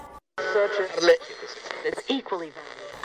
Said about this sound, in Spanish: De repente se escucha la radio.